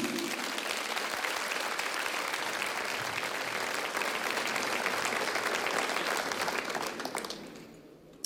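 An audience applauds in thanks to God during a church service, a dense wash of many hands clapping at an even level for about seven seconds before it thins and fades out at the end.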